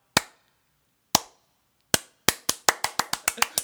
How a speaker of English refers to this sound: Slow clap.